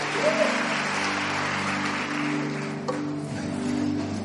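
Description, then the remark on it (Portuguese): A large crowd applauds loudly and steadily for Jesus for several seconds, a dense wash of clapping over a sustained low musical drone. “Dá um aplauso bem forte para Jesus.”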